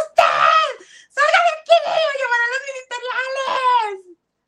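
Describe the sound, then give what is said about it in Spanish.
A voice acts out a series of shrill, strained screams, as if screaming on seeing oneself in the mirror while bathing, several bursts in quick succession with brief gaps between them, loud. “Imagínate que un día me estoy bañando y me veo al espejo, al espejo y grito,”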